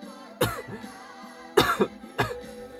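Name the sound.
coughing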